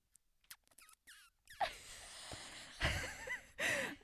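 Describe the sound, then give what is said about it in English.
A man imitates a cat by sucking his lips, with wet lip-smacking and sucking clicks, followed by breathy, squeaky mouth noises in several loud bursts, with no words spoken. “didn't really sound like a cat, but he was like he just like move his lips, so like sucking, just sucking his lips.”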